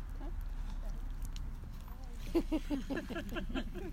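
A donkey's hooves clop in a quick, even rhythm, starting partway through and continuing to the end, over a steady low rumble of outdoor background noise.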